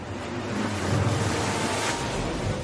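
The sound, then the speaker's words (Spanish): Stormy North Sea surf roars continuously, with extreme wind rushing and buffeting the microphone, a dense, loud wash of crashing water and gusts with no voices. “Según un relato sensacionalista del incidente, el barco del rey en particular fue azotado por vientos extremos y enormes olas.”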